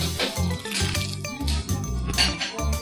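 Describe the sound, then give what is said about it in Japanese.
Bread with a crisp surface and a soft, fluffy, chewy inside being chewed, a run of sharp, crackly crunches in quick, uneven succession, fairly loud, with a low rumbling hum underneath and no talking. “じゃあ次パンを食べてみたいと思いますすごい聞こえますかこのサクサクサクサクもう柔らかい”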